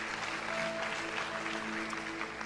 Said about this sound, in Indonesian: Berikan tepuk tangan bagi nama Tuhan.